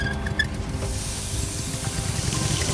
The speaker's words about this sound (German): Peter richtet die Flamme des Gasbrenners aus und Günther justiert das Gebläse so, dass die heiße Luft in die Ballonhülle gedrückt wird.